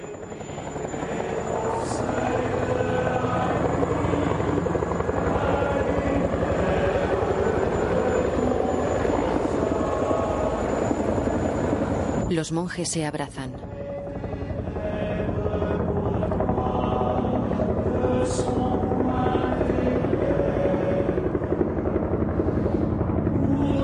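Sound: helicopter approaching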